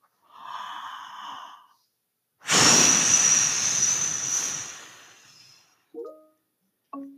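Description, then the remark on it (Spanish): A voice imitates a wolf blowing hard: a drawn-in breath, then a long, loud, hissing blow that fades out, followed by two short vocal bursts. “El lobo, muy confiado, que ya había tirado dos casas, volvió a decir, Entonces soplaré y soplaré, y la casita derribaré. Y el lobo tomó aire de nuevo”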